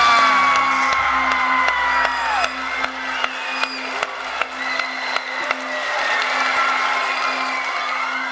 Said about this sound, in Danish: Jublen ville ingen ende tage, da NASA den 5. marts i år offentliggjorde navnet på den næste Mars rover, Perseverance, der kan oversættes til vedholdenhed eller udholdenhed.